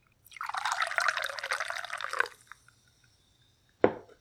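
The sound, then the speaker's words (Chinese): Liquid being poured from a freshly opened whiskey bottle, a steady glugging stream lasting about two seconds, followed after a pause by a single sharp knock, with no talking. “大家听这个声音啊，我刚开了一瓶，今天我们就边喝边聊。”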